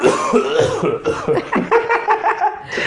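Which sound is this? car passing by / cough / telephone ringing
cough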